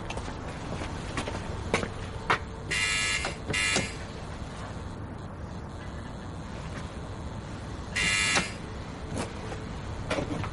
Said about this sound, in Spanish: Más tarde, el hombre de la barba llega hasta el edificio de Amador. La luz del techado del portal está parpadeando. Santa llega y llama al portero automático.